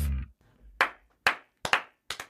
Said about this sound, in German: hier, das hast du vergessen, Digga, zu klatschen. Das klatschen ne? Ja, ja ich habe angefangen.